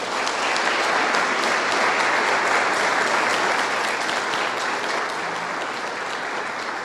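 Sustained audience applause welcoming a special guest invited up, a dense, steady wash of many hands clapping at an even loudness for several seconds, fading only slightly toward the end, with no one talking over it.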